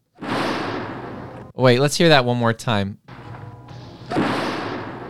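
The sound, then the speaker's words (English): A tripwire booby-trap explosion sound effect: a loud, roaring blast that decays over a second, then a man speaks briefly before the same rumbling explosion plays again. “I hit a tripwire within two to three minutes of oh. starting out with the patrol, blew myself and the entire patrol up.”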